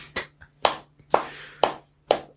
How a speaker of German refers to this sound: Hallo Hörer. wir machen mal einen Applaus.